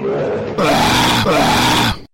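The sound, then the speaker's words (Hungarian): A man lets out two loud, harsh roaring growls in close succession, voicing a lion's roar, each rough and sustained with a brief break between them. “Helyes a bőgés, oroszlán!”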